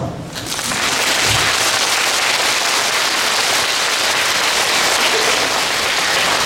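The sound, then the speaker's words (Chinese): An audience claps together in a dense, steady burst that starts almost at once and holds at an even, fairly loud level for several seconds, with no voices standing out. “听一半的，拍拍手。”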